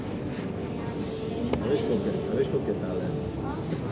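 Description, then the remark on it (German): A hand strokes the matte paint of a car with a microphone held to it, making a steady, breathy swishing hiss that runs unbroken for several seconds, with faint voices in the background. “Ich habe es gerade gestreichelt, ne? Kann man das hören? Ich mache ein Mikrofon dran.”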